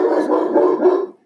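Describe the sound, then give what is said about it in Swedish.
A large, deaf Grand Noir dog in a kitchen lets out a loud, deep burst of barking at the mail carrier, a few rough barks running together over about a second before cutting off. No one speaks. “Och det var min hund.”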